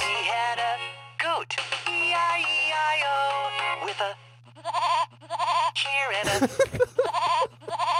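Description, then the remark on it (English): Loud goat bleats: a long wavering, quavering cry followed by several shorter bleating calls with brief pauses between them, over a steady low hum. “Load up the goat, friends.”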